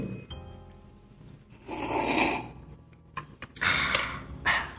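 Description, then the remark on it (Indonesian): Loud, airy slurping sips of coffee, two long drawn-in slurps followed by a shorter one, with quiet pauses in between and no talking. “iya jadi kenapa ya kalau kita minum kopi harus gitu tuh harus ada seruput seruput.”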